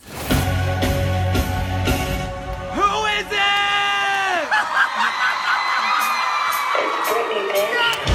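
A fan screams at a pop concert, a loud, high wavering shout that rises and falls over a roaring crowd, with sharp claps and cheers in the background.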